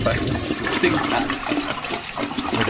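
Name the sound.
toilet flushing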